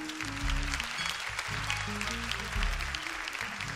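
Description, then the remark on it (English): An audience claps hands in a steady, dense burst of applause lasting several seconds, with low sustained musical chords shifting underneath and no voices. “Clap your hands for those people.”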